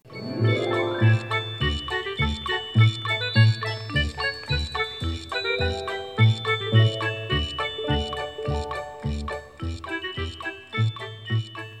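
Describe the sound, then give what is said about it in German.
Bright, cheerful instrumental background music from the entrance area of Heide Park theme park as it sounded in 2004 to 2014, with tinkling bell-like melodies over a steady, pulsing bass beat, playing continuously with no voices. “Ich erinnere mich mal gerne an früher, und dann nehmen wir mal die Jahre 2004 bis 2014 im Eingangsbereich im Heidepark. Da klang es noch so.”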